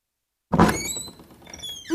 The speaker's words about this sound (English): opens the door.